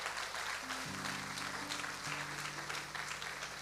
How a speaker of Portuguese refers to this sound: Dá uma salva de palmas bem forte ao Senhor.